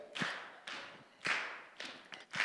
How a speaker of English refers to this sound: Clap, knee. Okay, yeah, some of you in the room are doing it.